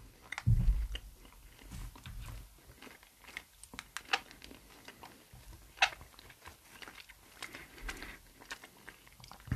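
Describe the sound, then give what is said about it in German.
Chewing of soft jelly beans, with wet smacking and sharp little squeaks of teeth rubbing, irregular and continuous throughout, without any talking. “warum quietschen meine Zähne so heute?”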